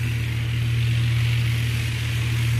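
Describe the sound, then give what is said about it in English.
A small Cessna plane's engine drones steadily in flight, heard from the co-pilot seat while circling over the Bolivian Amazon in bad weather, looking for a place to land: a loud, unbroken low hum with a rough buzzing edge and a constant wash of noise over it, with no talking. “I'm in the co pilot seat of the small Cessna plane, and we're circling the Bolivian Amazon.”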